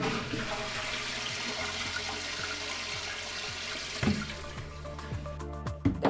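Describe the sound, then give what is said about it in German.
A toilet flushes with a loud, steady rush of water for about four seconds, then drains away into softer gurgles and trickles, with no talking. “Dann natürlich, ja, muss jeder mal wahrscheinlich, kennen Sie alle”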